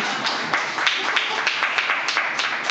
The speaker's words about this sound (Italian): applauso dato.